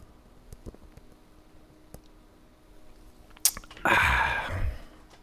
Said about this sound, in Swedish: Och så tar jag en klunk och så andas ut och bara... Ah. Så. En stor klunk.